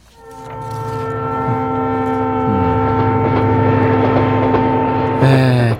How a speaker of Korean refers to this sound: 기차 타고 어디론가 가고 싶으시죠? 기차가 경적을 울리면서 레일 위를 달리는 소리입니다.